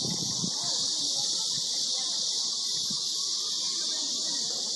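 Cicadas buzz in a steady, unbroken high-pitched drone that fills the whole stretch, with faint low rumbling noise underneath and no pauses or pulses.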